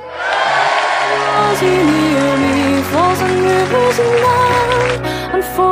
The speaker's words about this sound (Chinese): 我们走吧，我们走吧，掌声。